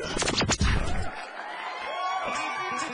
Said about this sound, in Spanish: Señoras y señores, mucha atención. Recibamos con un fuerte aplauso el show del patrón.